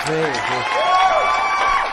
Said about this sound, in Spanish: Acá están todos aplaudiendo.